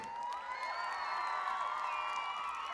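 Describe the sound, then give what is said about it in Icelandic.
A large concert crowd at a gig at Arnarhóll cheers and whoops in a steady, loud wash of overlapping voices, with applause mixed in, sustained for a few seconds without letting up. “Gefum rástvö, risastort, klapp fyrir að halda þetta awesome gig á Arnaróli.”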